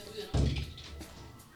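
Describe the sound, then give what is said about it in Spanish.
A knock at a door lands as one heavy, dull thud, fairly loud, over a low murmur of background voices. “Se equivocaron de puerta.”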